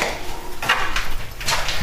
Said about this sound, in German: Dann wollen wir mal Leckys Schüssel holen und danach werde ich mich um Mias Schüssel kümmern.